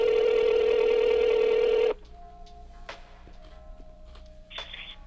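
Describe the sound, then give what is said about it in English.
A loud, steady telephone ring tone drones for about two seconds, then cuts off abruptly, leaving a quieter line with faint clicks and a few short electronic beeps, no voices. “why she not pick up the phone I hate that shit.”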